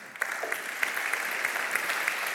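Steady applause from an audience, a dense patter of many hands clapping at an even level throughout, with no voices standing out above it.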